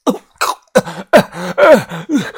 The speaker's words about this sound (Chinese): 豆芽仔半跪在床边，捂着脖子，连连的咳嗽，鼻涕、唾沫都咳了出来呀！